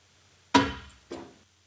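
A finch thuds against window glass twice, a sharp knock followed half a second later by a softer tap, each ringing briefly in a quiet setting.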